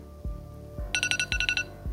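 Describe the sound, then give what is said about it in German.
An alarm clock set for 30 minutes goes off during a breath test, marking the time for the next breath sample, with rapid electronic beeps in two quick bursts of about four pulses each, fairly loud, with a few dull thuds around it. “Jetzt hänge ich die Testlösung zügig und stelle mir den Wecker 30 Minuten, denn dann findet die nächste Entnahmeprobe statt.”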